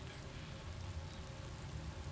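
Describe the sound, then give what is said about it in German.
Steady, soft rain hissing continuously, a dense wash of patter with a low rumble underneath and no voices, fairly quiet throughout. “Es regnet doch.”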